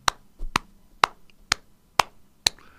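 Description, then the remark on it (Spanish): Six crisp handclaps in a song land at a steady, even beat, fairly loud, with only a faint musical backdrop between them and no voices. “¿Vieron? Las palmas y esas dos voces subiendo, rebotando en el cielo y volviendo a la tierra.”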